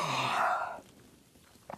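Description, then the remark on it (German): A single drawn-out, breathy yawn voiced by a person imitating a very tired woman yawning, lasting under a second before fading into near silence. “Frau Usebuse ist jetzt müde. Oh, sehr müde. Sie gähnt.”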